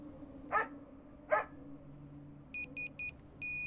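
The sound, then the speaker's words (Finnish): A dog greets its owner arriving home with two short, bright barks spaced under a second apart, followed by a quick series of high electronic beeps from a phone's text message alert. “koira ottaa minut vastaan aina yhtä ilahtuneena ja hyvän tuulisena.”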